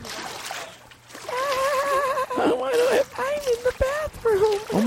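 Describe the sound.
Water splashes and sloshes steadily while a voice vocalizes in drawn-out, wavering tones over it, the splashing continuing underneath throughout.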